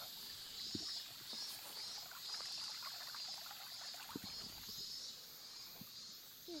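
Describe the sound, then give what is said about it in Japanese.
A mountain stream on Sado Island, Niigata Prefecture, flows steadily, its continuous watery rush even, with a shrill cicada drone humming high above and a few soft splashes and knocks. “新潟県佐渡島の山からお送りしますわーっと景色がいいですね水が流れる音聞こえますでしょうか”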